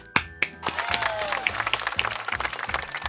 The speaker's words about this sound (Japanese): おい、おい、イエーイとか拍手とか。イエーイ。テンション低いわ。